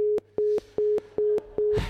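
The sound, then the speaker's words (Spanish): A phone busy tone after a mobile call drops because of failing coverage: five short, evenly spaced beeps in a quick steady rhythm, clear, ending in a brief burst of static. “2034 y aún sigue fallando la cobertura del móvil.”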